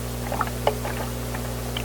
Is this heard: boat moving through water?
yes